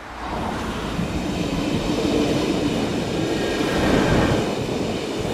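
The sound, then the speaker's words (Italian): A hydrogen fuel cell passenger train, the world's first, built by the French group Alstom, running at over 110 km/h and carrying up to 300 passengers, runs past with a steady, fairly quiet rumble and a faint mechanical whine, the sound holding even and continuous for several seconds with no voices. “Questo è il rumore discreto che produce il primo treno al mondo ad essere alimentato da celle a idrogeno, realizzato dal gruppo francese Alstom.”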